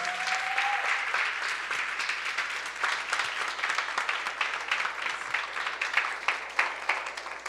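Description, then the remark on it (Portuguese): A church audience applauds the Lord steadily, a dense crowd of hands clapping for several seconds at moderate loudness with a faint sustained tone at the start and no speech. “Você pode aplaudir o Senhor pela vida deles?”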